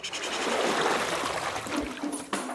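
Water trickles and splashes steadily as a Berlin police diver emerges from the surface, with a brief sharper splash near the end; the sound is fairly continuous, with no talking.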